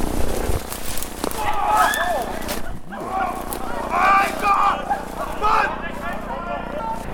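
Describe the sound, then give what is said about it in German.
Wild boar screaming in a forest: a run of shrill, wavering squeals and grunting cries that rise and fall repeatedly over several seconds, fairly loud above a low, steady rumble. “bestimmt auch wieder Wildschwein.”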